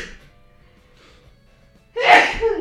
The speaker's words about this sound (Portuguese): Deixa eu espirrar aqui, só um pouquinho.